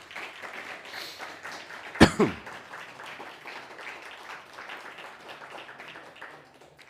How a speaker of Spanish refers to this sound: Así que un fuerte aplauso a, todo, a todas las naciones.